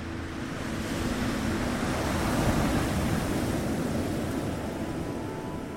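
Atlantic Ocean waves roll and break continuously in a steady, broad rush of surf, repeating endlessly and even in loudness, with no voices present.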